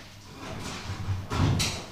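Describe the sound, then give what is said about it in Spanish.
A sound effect of a shelter door opening: a heavy door slides open in a short, rumbling whoosh that swells to a louder mechanical burst near the end. “Ahí se abre, Efecto de... que se abrió la puerta del refugio.”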